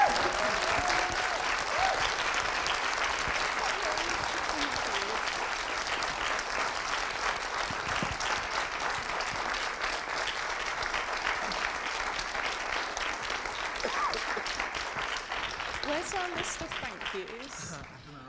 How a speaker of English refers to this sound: I think we should give you a resounding round of applause and just thank you very much